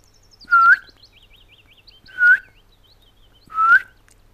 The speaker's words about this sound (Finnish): Tänäkin vuonna elokuun viimeisinä päivinä etelärannikon pensaikot ovat kuhisseet pajulintuja ja niiden haikeita kutsuääniä